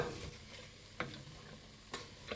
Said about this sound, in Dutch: Zo, alle groenten zitten erbij. En nou is het even een kwestie van flink door blijven ja. roeren